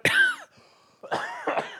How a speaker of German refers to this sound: Siehst du, ich darf mich nicht aufregen, da muss ich sofort husten, das ist ja unangenehm.